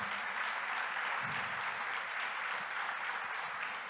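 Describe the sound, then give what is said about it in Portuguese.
Steady applause from a church audience, given to Jesus for a family, fills the whole stretch, a dense, even wash of many hands clapping at a constant loudness with no voices standing out. “Dá um aplauso a Jesus por essa linda família.”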